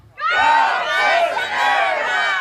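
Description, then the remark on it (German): A large rally crowd erupts in loud, sustained cheering and shouting in response to a speech by Lady Marga, many voices overlapping in a steady roar that holds for a couple of seconds after a sudden start. “So richtig, ne, dieser Kampfton, den auch Donald Trump bei seinen Reden immer hat, das hat Lady Marga alles abgeliefert und dann auch Applaus dafür bekommen.”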